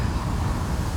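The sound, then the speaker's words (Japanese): Steady low rumbling wind buffets an outdoor recording microphone used without a windjammer, a continuous roaring whoosh with uneven gusty pulses filling the whole second, fairly loud, with no clear voices. “まあ、一点失敗したなと思ったのはあのウィンドジャマーを忘れたっていう、うん、風がね、はい、まあ多分この風がゴーゴー言うのをどうやって切ろうかなって思ってますけど。”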